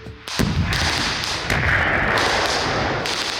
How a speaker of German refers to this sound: The explosion sounds in the video are also suspect.